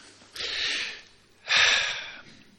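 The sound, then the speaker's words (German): A man, bent forward, draws a deep breath in sharply, followed by a second, stronger rush of air about a second later, both loud and breathy with no talking. “Nach vorne gebeugt atmet er noch einmal tief ein und nimmt daraufhin einen Eintrag in das Sterberegister vor.”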